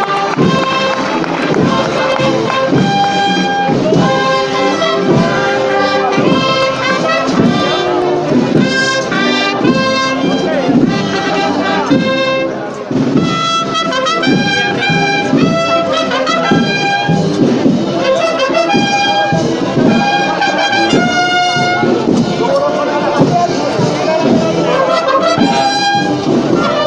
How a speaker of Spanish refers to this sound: Amarguna soberana, la marcha que está sonando y la imagen que pasea por las calles de Jaén en esta tarde de lunes santo.